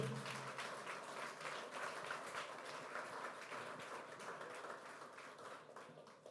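A crowd applauds steadily, many hands clapping together in a dense, sustained wash of sound that stays loud and even for several seconds without any talking.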